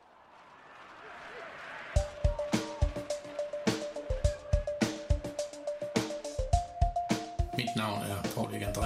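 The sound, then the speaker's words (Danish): A short jingle for the radio station Rød Aalborg bursts in after a quiet rumble, with punchy, evenly spaced percussive hits over a sustained synth tone, loud, building toward a busier finish. “så jeg sætter lige en skiller på her”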